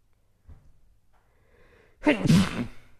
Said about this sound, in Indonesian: Itu adalah bersin di podcast.